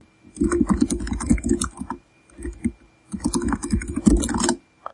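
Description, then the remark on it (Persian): Rapid keystrokes on a computer keyboard while typing the commands apt-get update and apt-get upgrade, fairly loud, in two dense bursts of typing separated by a short pause, with no voices. “به این ضرب کلید گوش بدین”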